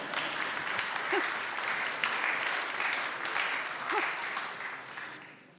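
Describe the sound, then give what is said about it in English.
A crowd applauds steadily for several seconds after a Bible reading, a dense, crackling wash of clapping that holds at a fairly even level before tapering off near the end. “Judy, you need a massive round of applause.”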